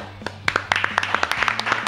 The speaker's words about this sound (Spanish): bueno, hoy es jueves de drogas. Quiero un aplauso para eso.